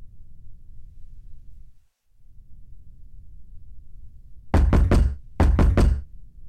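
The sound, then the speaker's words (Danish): An enraged woman pounds heavily on the door of Køge's town bailiff Niels Ibsen: two quick, forceful bursts of three knocks each, over a low, steady rumble of background noise. “Det hamrer på døren.”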